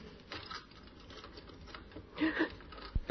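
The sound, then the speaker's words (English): Small metallic clicks and scrapes as a key slides into a door lock and turns effortlessly and easily, ending in one sharp click as the mechanism gives, over a quiet hiss. “key turned effortlessly and easily.”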